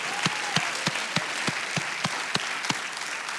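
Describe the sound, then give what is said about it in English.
A large church audience at Cathedral of Faith applauds its standing volunteers who serve in ministries, a dense wash of steady clapping with louder, evenly spaced claps punching through in a regular beat, like an audience cheering people on. “All of our volunteers who serve in ministries, let's hear it for them.”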